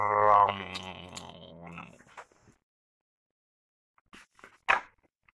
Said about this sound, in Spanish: Está claro, ha sido un perro.